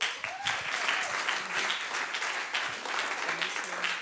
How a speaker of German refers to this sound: Lass uns die beiden nochmal ermutigen mit einem Applaus.